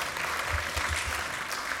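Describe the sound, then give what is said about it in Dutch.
An audience applauds warmly to welcome a speaker coming forward, a steady, dense patter of many hands clapping at a fairly even level throughout, with no voices heard over it. “Misschien kunnen we hem eh, ontvangen met een hartelijk applaus.”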